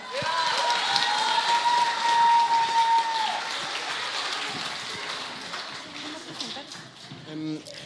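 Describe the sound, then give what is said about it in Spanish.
An audience applauds steadily for several seconds for magician Mario Conde, a dense crackle of many hands with crowd cheering mixed in, joined early on by a sustained whistle-like tone that fades out partway through. “Aplauso para Mario.”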